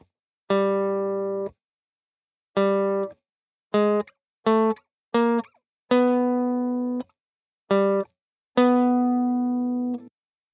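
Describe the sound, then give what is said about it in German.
A series of eight clear plucked guitar notes on the fourth string, around G at the fifth fret, during a lesson on the G major chord. Each note rings briefly and decays, with some short and quick in the middle and longer sustained ones at the start and end, no talking. “Ton einprägen und wieder auf der dritten Seite den gleichen Ton suchen.”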